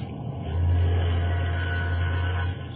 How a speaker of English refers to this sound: Sounds like an ocean liner, right enough. Yes, we're signaling her.